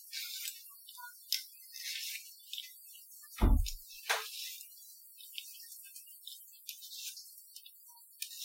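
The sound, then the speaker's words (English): A dishwasher running in a home kitchen: quiet, uneven hissing and splashing water sprays in irregular bursts, with one dull low clunk partway through. No one speaks. “There goes the, the dishwasher.”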